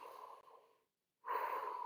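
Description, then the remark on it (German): A slow, steady breath out, a brief silent pause, then a fuller, louder breath drawn in, with no talking, calm and unhurried rather than panting, as controlled breathing is demonstrated. “Also, dass man nicht in diese reingeht, dieses Hecheln, sondern”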